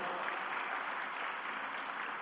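A crowd claps together in steady, dense applause given to the Lord, a continuous wash of many hands at full volume for the whole stretch, with no voices standing out.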